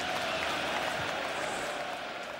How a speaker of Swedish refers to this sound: Ja, ni ser själva, ni hör själva. Två tredjedelar av Ryavallen jublar.